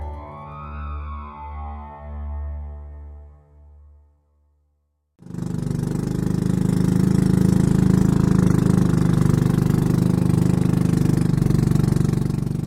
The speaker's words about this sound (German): Zehn Minuten lang fahren wir im Boot des Bauern Huzeng quer über den jetzt zur Trockenzeit träge dahinfließenden riesigen Mekongfluss.